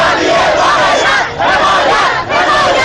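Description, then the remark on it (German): A loud crowd of Reform Movement supporters protesting at night in Tehran, Iran, in June 2009, shouting their anger together in a dense, sustained roar of many voices, with brief dips between bursts that suggest a rhythmic chant of 'Down with the dictatorship'; recorded with mobile phone cameras. “Nachts in Teheran. Anhänger der Reformbewegung schreien ihre Wut hinaus.”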